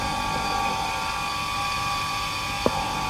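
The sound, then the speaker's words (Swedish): A skate sharpening machine, set up for sharpening goalkeepers' skates, runs with a steady, even hum and whine, holding a constant pitch throughout, with a single brief click near the end. “För den här får jag en riktigt bra skärpa på. Så har jag den inställd för målvakterna.”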